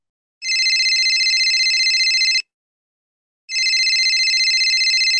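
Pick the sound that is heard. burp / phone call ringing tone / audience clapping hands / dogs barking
phone call ringing tone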